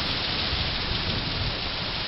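nature, thunder with rain

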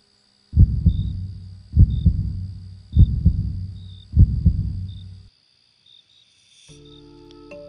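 sound effect, fast heartbeat sound effect

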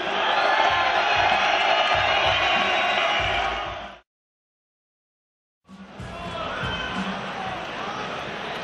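crowd, crowd cheering and shouting

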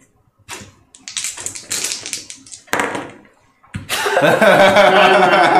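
household object, two dice being rolled

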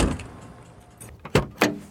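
vehicle, car door opening

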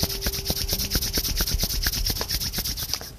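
human body sound, hands rubbing together

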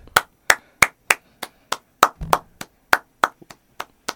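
human body sound, one person clapping hands

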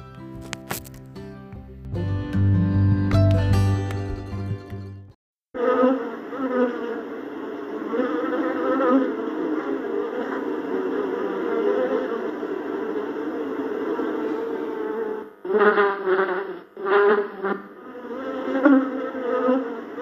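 insect, bees buzzing

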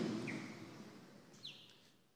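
bird, small bird chirping

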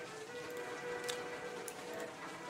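nature, light drizzling rain

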